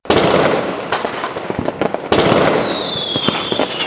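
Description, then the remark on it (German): A fireworks sound effect played for a draw: dense crackling with rapid sharp pops and bangs over a hissing roar, followed by a whistling rocket sweeping downward amid continued crackle; loud, no voices. “Wir machen Feuerwerk und zwar jetzt.”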